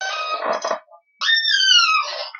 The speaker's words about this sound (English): Did, did you add that sound effect in, or no, that was that was my chair.